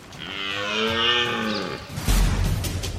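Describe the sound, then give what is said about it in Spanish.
A red deer stag bellows during the rut, one long, loud, drawn-out roar lasting nearly two seconds, followed by a burst of rough, noisy rustling. “Pero el sonido no es el único protagonista de la berrea.”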